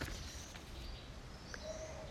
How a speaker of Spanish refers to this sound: Hoy escuchamos el viento, alguno que otro pajarito que lucha contra el inclemente viento, subido en las ramas de los árboles